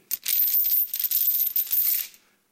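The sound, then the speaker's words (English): Metal chains rattle and jangle in a bright, continuous clatter for about two seconds, fairly loud, with no voices, before quickly dying away. “The chains rattled, and the rattling of the chains brought news of the Christian being attacked by Satan.”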